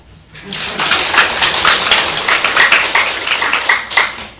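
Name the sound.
audience clapping hands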